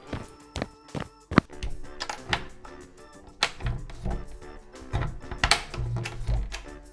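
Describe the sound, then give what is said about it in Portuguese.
Several quick footsteps land on a hard floor, then a few knocks and clunks as a door is unlatched and pulled open to let arriving guests in. No one speaks. “Vamos lá abrir essa porta”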